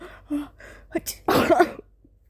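Close, loud bursts: a few short breathy intakes, then a sharp explosive sneeze that roughens into a hacking cough before trailing off into quiet.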